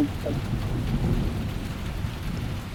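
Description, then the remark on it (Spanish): Steady rain pours down during a night storm in the desert, with a deep, rolling rumble of thunder underneath, a dense low roar that stays loud and continuous throughout, with no voices. “Relámpagos.”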